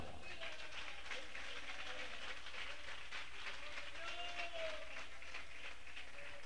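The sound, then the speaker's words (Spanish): An audience claps together during a sermon in a steady, dense wash of applause that stays loud throughout, with a few voices faintly calling out underneath. “Palmas a Dios por su palabra.”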